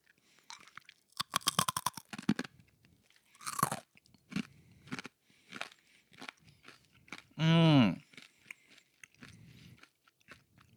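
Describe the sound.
Crunchy hina-arare rice cracker snacks, sweet and fried in oil, being chewed, with a run of crisp, rapid crackling bites followed by slower scattered crunches. A short voiced hum breaks in partway through.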